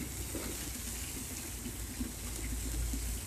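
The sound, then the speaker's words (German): Steady splashing and trickling of a garden pond fountain in a garden in Berlin, beside a barbecue grill, a continuous bubbly wash of water with no pauses and no voices. “Der Gartenteich ist zu laut. Der Gartenteich Springbrunnen.”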